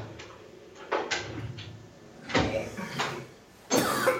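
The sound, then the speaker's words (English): A few sharp knocks and bangs ring out one after another, like a door being pushed shut and thumped, not especially loud, with quiet rustling between them and no talking. “I'm not even slamming any doors”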